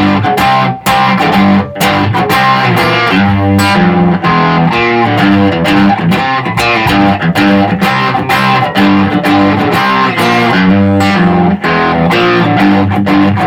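A loud, heavily distorted electric guitar riff, played on its own without the theme, repeats a punchy, chugging rhythmic figure with a thick, buzzing tone, played continuously without any talking.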